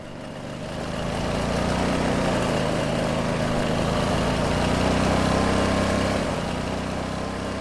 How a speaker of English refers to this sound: And since my next stop is on the outskirts of the city, I have only one option. I present to you the very small Chinese electric scooter.